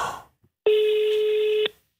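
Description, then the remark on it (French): A single steady ringback tone from a call to a mobile phone sounds for about a second, loud and clear with nothing else over it, after a brief burst of noise and a short silence. “Alors, ça sonne ou pas Du côté de, bah, du portable Ça devrait sonner.”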